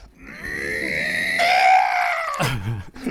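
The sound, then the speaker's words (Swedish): A person demonstrates trying to force out a scream, as when half-awake in a dream and unable to move: a voice strains out a tight, sustained, scream-like cry that won't come out, then it breaks into a short, low, muffled grunt. “Man, man försöker liksom hela tiden bara eh, trycka ut ett skrik ur ja. sig.”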